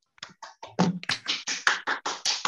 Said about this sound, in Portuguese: Palmas para nós, por favor.